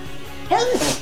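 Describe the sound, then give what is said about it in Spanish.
A single loud sneeze from a person who keeps sneezing bursts out after a short quiet lead-in, with a sharp onset and a brief breathy tail. “Y yo sigo estornudando, pues bueno, no podemos seguir así toda la noche.”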